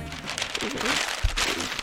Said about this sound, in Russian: ну, вот так вот бумажку это скомкал и, и, и все, да.